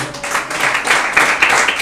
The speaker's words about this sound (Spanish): Dele ofrenda de palmas al Señor.